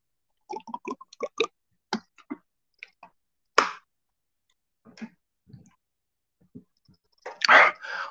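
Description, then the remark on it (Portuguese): Someone sipping water: a string of small wet mouth clicks and swallowing sounds, with two louder breathy bursts, one midway and one near the end, and no talking. “Deixa eu dar um gole aqui na minha água que a gente começa.”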